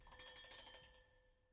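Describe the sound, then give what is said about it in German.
A doorbell rings with a rapid metallic trill for about a second, then its tone fades out, with no voices; a man standing in front of a locked house rings it. “Klingelt.”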